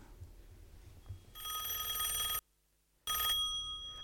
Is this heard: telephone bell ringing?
yes